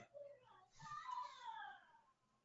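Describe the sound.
High-pitched voices of the speaker's own children squeal and chatter in the background, rising in a brief excited burst before fading, fairly faint.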